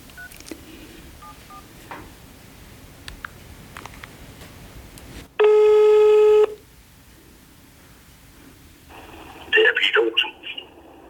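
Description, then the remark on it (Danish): A loud, steady telephone ringing tone sounds once for about a second during an outgoing call to an undertaker, set against a quiet, rustling background, followed later by brief bright clicks and beeps. “Jeg ringer lige til en bedemand, jeg kender.”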